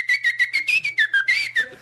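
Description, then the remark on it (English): A person whistles a short, lively tune, a quick run of about nine clear, bright notes that rise and dip in pitch with brief gaps between them. “Do the whistling and picturing the light.”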